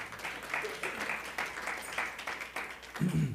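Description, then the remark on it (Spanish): A church audience applauds together for the Lord during a service, a steady wash of many hands clapping for a few seconds at moderate loudness, with a brief low voice sound near the end. “Démosle un fuerte aplauso al Señor.”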